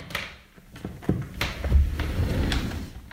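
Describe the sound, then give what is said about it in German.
The wooden bottom drawer of a child's wardrobe slides open with a low scraping rumble, a few knocks and rattles along the way, moderately loud, with no voices. “In der unteren Schublade meines Kinderkleiderschranks.”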